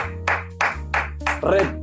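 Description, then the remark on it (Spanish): A short applause sound effect for Gary Lineker, made of four sharp, evenly spaced claps over a steady low hum, the last clap blending into a brief ringing tone. “Un aplauso para el mejor”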